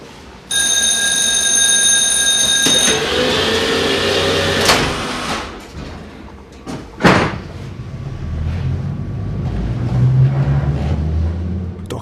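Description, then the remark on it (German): A tram's warning tones sound as its doors thud shut, then a sharp clunk and a low, growing rumble as tram car 51 jolts into motion in Naumburg, Germany, with no voices. “jetzt ruckelt Wagen 51 wieder los.”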